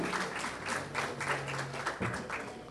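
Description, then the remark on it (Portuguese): An audience at a Christian gathering breaks into steady applause for a group called the MCU crew, a dense wash of many hands clapping at fairly even loudness, with a faint murmur of voices mixed underneath. “Palmas para a turma aí.”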